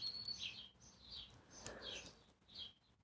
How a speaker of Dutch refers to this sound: Hoor je trouwens deze mooie vogeltjes? Eh, moet je ze even horen.